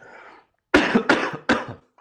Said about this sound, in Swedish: Um, jag ska hosta först innan jag börjar svara på den frågan. Jag får du klippa här.